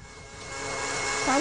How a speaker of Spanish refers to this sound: Voy a ir a controlar lo de la licuadora. Voy a ir a visitar la licuadora. No, no. es la licuadora.